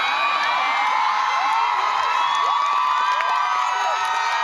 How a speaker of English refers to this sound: And um, Russell Crowe just appeared on the stage. That's why they're cheering. It's very annoying. Women screaming is uh, really, really annoying,